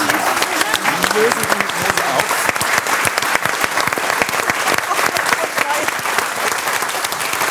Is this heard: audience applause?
yes